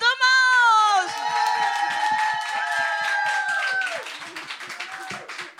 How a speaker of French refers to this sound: Et on a fait un tonnerre d'applaudissements